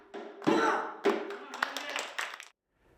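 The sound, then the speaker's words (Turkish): Several sharp percussive hits ring out, hand claps by Turkish President Erdoğan keeping time with clicking castanets during a visit, mixed with a busy, tonal musical background before cutting to near silence. “kastansına ise alkışla eşlik etti Cumhurbaşkanı Erdoğan.”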